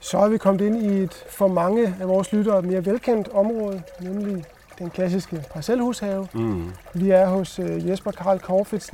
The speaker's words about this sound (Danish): og det, I forhåbentlig kan høre her i, i baggrunden, det er lyden af rindende vand. Ja. Vi sidder lige oven på en bæk.